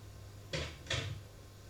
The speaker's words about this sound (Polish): Teraz proszę Państwa zamknąć drzwi.